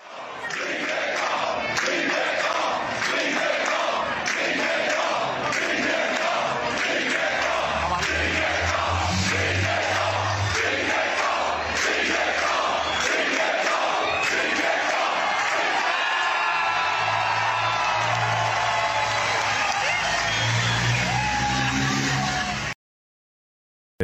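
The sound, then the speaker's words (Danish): A huge crowd of cycling fans in Copenhagen, Denmark, roars and cheers under a road bridge as Vingegaard rides through on a Danish stage of the race, with loud, sustained shouting that swells in rhythmic waves, and low engine rumbles passing underneath. “Prøv lige at høre her, hvordan det lød under en øh, vejbro, der Vingegaard her var på vej.”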